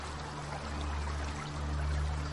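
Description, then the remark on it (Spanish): Water flows in a steady, continuous rush, broad and hissy like a river, with a low droning hum running underneath. No one speaks. “Un montón de cadáveres está hacinado a orillas de un río.”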